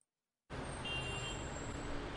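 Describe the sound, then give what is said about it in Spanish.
After a brief silence, a steady wash of road traffic noise starts abruptly and continues at an even, fairly loud level, a broad rumble of passing vehicles with no voices. “Te marco luego porque, ay, qué hueva da con estos días de tráfico.”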